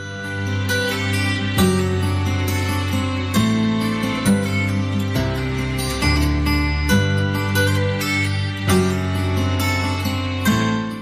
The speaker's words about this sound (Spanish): vamos a hacer ahora una pausa antes de continuar con la siguiente eh, sección del programa y escuchamos una de las cuñas publicitarias eh, que normalmente usamos para separar estas secciones de La voz del Papa.